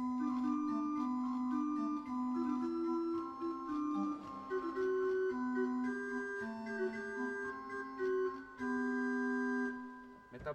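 A pipe organ plays a Bach Christmas chorale prelude, held upper tones sounding over a busier, quickly moving figure in the organist's left hand that depicts joy, continuous and fairly full for about ten seconds with no voices.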